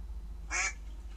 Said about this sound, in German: Ente